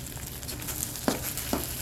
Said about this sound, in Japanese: このたこ焼きが焼ける音がみんなに届いたらなとかなんかみ私がガチャガチャやってんのが届いたらなって思いますね